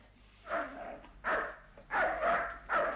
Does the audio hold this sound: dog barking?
yes